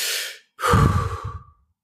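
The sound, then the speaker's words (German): A single deep breath during a guided breathing exercise, a short airy inhale followed by a brief pause and a longer, fuller exhale that trails off, clear with no talking. “Also dann nochmal tief einatmen und die Luft rauslassen.”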